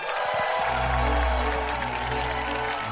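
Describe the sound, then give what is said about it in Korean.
A steady wash of audience applause fills three seconds, dense, with a low sustained musical tone running underneath the clapping throughout, welcoming a special guest reporter onto the show. “박수로 모시겠습니다.”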